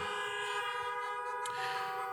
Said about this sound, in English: Come on, would you just honk your horn in praise while I open the word?